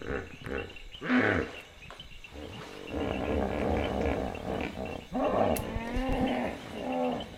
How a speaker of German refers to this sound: Unser Zelt im Lower Sambesi Nationalpark steht am Ufer des Chongwe River. Die Frösche klimpern die ganze Nacht, die Flusspferde grunzen die ganze Nacht.